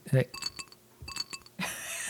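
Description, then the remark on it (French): Ice cubes drop and clink into a glass of kombucha in two short bursts, bright ringing taps, followed by a rush of fizzy noise. “En fait, c'est février sec, on met des glaçons dans le kombucha.”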